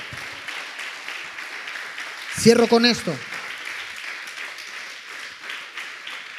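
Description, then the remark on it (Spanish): An audience applauds God in a steady, dense wash of clapping that runs the whole time. A man's voice cuts in briefly over it near the middle. “Si le va a dar el aplauso a Dios, déselo, pero bien fuerte.”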